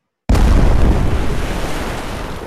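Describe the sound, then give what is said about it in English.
A sudden, loud explosion bursts in after a moment of silence, its deep rumbling boom holding strong and then slowly decaying into a long roaring tail. “Transitions, uh, sound effects, weapons, explosions.”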